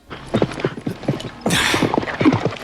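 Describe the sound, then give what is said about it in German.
Horse hooves clip-clop in a steady, brisk rhythm, clear, with a brief breathy rush of noise partway through; no voices are heard. The horses are being ridden by a group for several hours toward a destination. “ritten sie gemeinsam noch mehrere Stunden ihrem Ziel entgegen”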